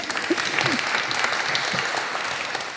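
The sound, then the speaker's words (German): An audience at a panel discussion claps steadily to welcome a guest from the Bundesprogramm Ländliche Entwicklung, a dense wash of many hands at an even loudness throughout, with a few faint voices murmuring underneath. “Herzlich willkommen, ein Applaus bitte.”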